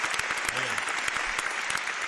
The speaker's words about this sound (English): round applause